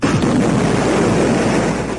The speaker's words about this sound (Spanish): Las minas explotan. Y se produce un terremoto.